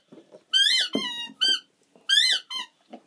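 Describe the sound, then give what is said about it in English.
A dog chomps a squeaky toy repeatedly, with several sharp, high-pitched squeals in quick irregular bursts, loud, with faint rustling and thuds between squeaks. “And then squeaking is Bobby playing with his fucking toy”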